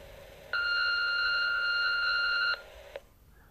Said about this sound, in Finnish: Huonojen vanhempien tunnustuspuhelin. Lue tunnustuksesi nauhalle äänimerkin jälkeen.